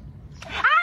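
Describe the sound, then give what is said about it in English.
A small dog lets out a single short, high-pitched whimpering yip, clear, after a moment of low background rumble and a faint click. “bro, those little dogs, bro. It's always the little dogs.”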